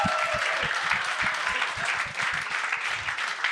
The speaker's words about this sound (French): Mais on va, on va l'applaudir tout de suite, puis tu diras après.